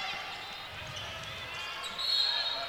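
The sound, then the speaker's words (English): A referee's whistle blows once, short and shrill, near the end, rising above the steady roar of an arena crowd during a basketball game involving WKU, with faint ball bounces in the background. “And a whistle.”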